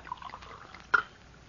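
Water trickles softly as it is poured into a glass for someone to drink, a faint liquid splash with a brief sharper clink near the end, and no voices.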